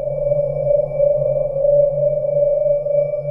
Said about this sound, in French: dans cette vidéo, il montre également des crayons qu'il a ralenti à 800% pour voir ce que ça donnerait. Et, précise-t-il, il trouve ça assez effrayant.